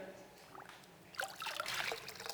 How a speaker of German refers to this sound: Dann saugt sich dieser Schwamm voll und wenn wir dann pressen, dann kommt da was raus.